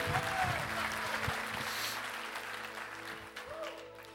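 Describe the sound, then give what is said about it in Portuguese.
An audience applauds steadily, a dense wash of many hands clapping that holds for about four seconds, with a voice faintly rising over it at moments. “Você pode aplaudir mais forte, não tem nada não.”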